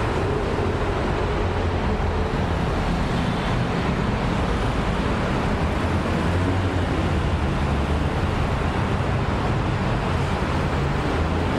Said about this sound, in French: Le troisième, la circulation routière.